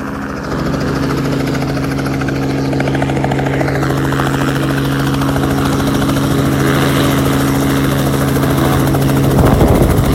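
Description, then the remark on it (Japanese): A helicopter returns to land in strong wind on a pad outlined by orange and green lights with a white circle in the middle, its rotor and engine producing a loud, steady droning hum that swells slightly as it approaches, ending in a gusty rush of noise. No one speaks. “オレンジの明かりであオレンジと緑かなの明かりがで四角く囲っている場所にありますその中に真ん中に丸とか白いのがお来た来た来た戻ってきました、ね、音聞こえるでしょうか”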